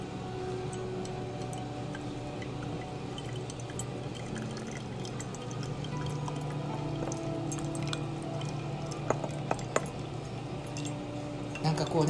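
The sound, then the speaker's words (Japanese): Soft, irregular drips of hand-drip coffee fall through a filter as hot water is poured in portions. The drips are faint against a steady low hum, with a few sharper clinks and taps toward the end. “ポトポトって音聞こえますかね”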